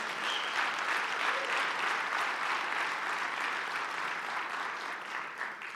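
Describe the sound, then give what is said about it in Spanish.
A large church audience claps together in sustained, dense applause, steady and fairly loud throughout the whole stretch, with no clear voices rising above it. “Dáselo fuerte, Señor.”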